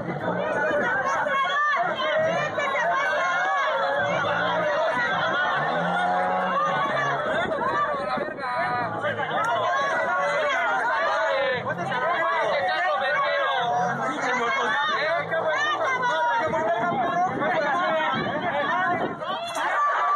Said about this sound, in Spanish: entre gritos, empujones, empellones, están las protestas.